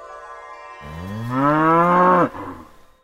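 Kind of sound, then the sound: animal, cow mooing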